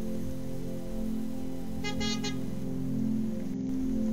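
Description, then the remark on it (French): A car engine rumbles steadily while a brief horn sounds in a quick double toot midway through, with no voices, as Dupont and Dupont arrive by car. “Oh, mais ce sont les Dupont et Dupont qui arrivent en voiture.”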